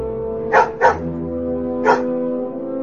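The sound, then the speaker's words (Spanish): A dog barks three times, two quick barks close together and then a single bark after a short pause, over a steady, sustained musical drone. “En consecuencia, el perro participa de la magia.”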